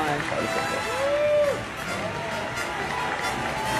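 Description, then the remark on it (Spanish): A large crowd gives an ovation at the end of a screening of Indiana Jones at Cannes, a dense wash of steady clapping, with a brief whistle rising over it near the start and a murmur of voices beneath. “Entonces, pónganlo, por favor, en Cannes, este, proyectaron Indiana Jones y al final dieron una ovación y míralo, mira, no pudo contenerse, estaba muy conmovido.”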